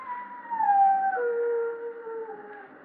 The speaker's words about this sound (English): I mean someone's going to die when a dog howls like that.